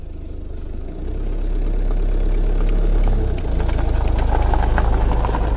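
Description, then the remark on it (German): A car engine runs steadily with a deep, constant low rumble and vibration, loud, with a slight shift in pitch partway through as if changing revs, as the car drives to Warendorf, Germany. No one speaks. “Wir steigen in ein Auto und fahren mal eine Runde mit nach Warendorf.”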